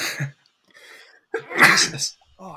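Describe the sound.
A single loud, explosive sneeze bursts out, made away from the microphone, with a brief laugh and a few spoken words just before and after it.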